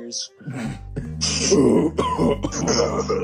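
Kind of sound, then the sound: vocal imitation, imitated coughing fit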